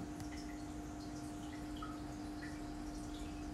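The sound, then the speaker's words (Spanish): Soft, steady water trickling with scattered little drips and bubbly plinks over a constant low hum, coming from a fish tank. No one speaks. “Te dejo con, con ese sonidito de agua de fondo que viene de la pecera.”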